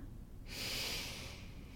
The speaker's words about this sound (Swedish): Och så kan man se till sina andningsvanor. Andas genom näsan